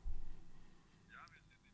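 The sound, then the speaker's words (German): Steady low rumble of a bus interior heard over a narrow, muffled phone line, with a heavier thump at the start and a brief high squeak partway through. “Bist du im Bus?”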